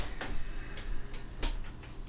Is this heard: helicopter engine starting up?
no